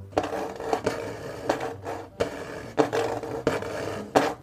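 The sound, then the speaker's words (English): El Cadejo, a beast with clawed feet and fiery eyes, growls in a rough, snarling series of about five raspy bursts, fairly loud, each surge swelling then easing, with no one talking. “El Cadejo was growling and ready to attack.”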